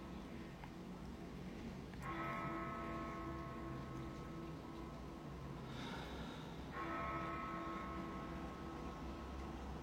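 A nearby church bell strikes twice, about five seconds apart, each toll ringing out with a long, shimmering hum over a low background rumble; no one speaks.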